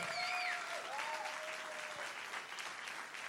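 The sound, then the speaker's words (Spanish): An audience in a church gives a louder round of applause to the Lord during a sermon, a steady, dense wash of clapping that holds at an even level throughout, with a few faint whistles or cheers rising over it early on. “Vamos, eso mereció un, un aplauso más fuerte al Señor.”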